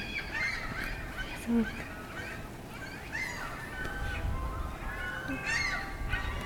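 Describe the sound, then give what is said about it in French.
Seagulls near a beach call repeatedly in squawking, honking cries that overlap and come in bursts over a steady outdoor background rumble, some calls louder than others. “Et surtout près de la plage, tu qui fait qu'on entend beaucoup de mouettes.”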